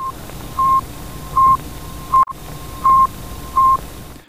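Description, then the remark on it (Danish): A satellite radio signal, received at night by the Danish Post and Telegraph frequency monitoring in Lyngby, sends rapid, even telegraphic beeps, tones of about 0.3 seconds with gaps of the same length, over a steady hiss of radio static with a faint continuous carrier whine. “0,3 sekunder og med mellemrum af samme længde afgiver et telegrafisk signal, en hurtig, men jævn duttone.”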